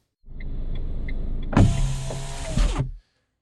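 A car's power window rolls up after the car pulls over to the side, with a steady electric motor whine over a low hum, ending in a thud as the glass seals shut, then silence.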